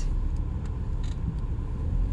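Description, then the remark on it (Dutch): A car reversing slowly to park, its engine a steady low rumble, with a few faint higher clicks over the continuous drone and no voices. “En Um, even achteruit.”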